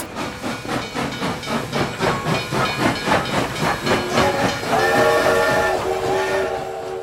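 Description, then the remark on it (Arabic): A steam locomotive of the Hejaz Railway between Damascus and Medina chuffs steadily along, its rhythmic puffs of hissing steam loud, before a sustained whistle-like tone sounds over the running train near the end. “كان القطار فعليا يستغرق مدة 72 ساعة فقط إلا أن بقية الأيام كانت تمضي بسبب وقوف القطار المتكرر في المحطات وكذلك بسبب تغيير القاطرات”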